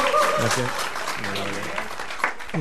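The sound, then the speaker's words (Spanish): Sustained audience applause, a dense, steady patter of clapping throughout, with voices talking and calling out over it. “Con estos aplausos en el mundo, entre comillas, tuvimos los testimonios sobre tu unión”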